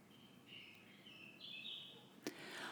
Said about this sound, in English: I stood for a moment, listened to the birds, and took a deep breath.